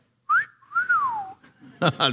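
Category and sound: human body sound, human whistling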